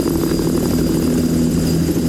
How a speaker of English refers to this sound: Now you might be able to hear in the background, my helicopter has arrived.